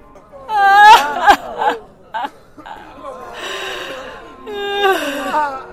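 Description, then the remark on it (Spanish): A voice acts out wailing cries of pain, two drawn-out anguished howls with sliding pitch, separated by breathy, strained gasps and moans, fairly loud. “Pero en ese momento, del este, el rey escuchó gritos de...”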